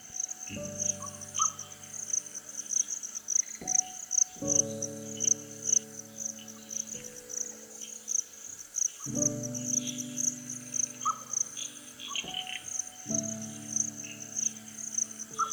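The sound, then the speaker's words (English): A steady, shrill chorus of night insects hums throughout, while distant nightjars and bush frogs give low, rich calls that return every few seconds in drawn-out bursts. “After a while, only distant nightjars, bush frogs, and insects occupy the nocturnal soundscape.”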